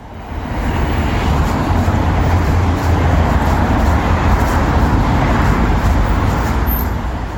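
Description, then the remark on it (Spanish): Dense street traffic ambience in central London, a steady loud wash of engines and road noise with low rumbling vehicles passing, continuous throughout with no horns or voices. “Este es el sonido de las calles de Londres en pleno centro.”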